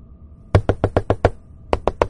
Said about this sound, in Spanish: El ente va a seguir tocando y golpeando la ventana a cada instante durante toda la noche. Habrá momentos en los que va a golpear tan fuerte que vas a creer que va a despertar a alguien a lo mejor la ventana se va a romper.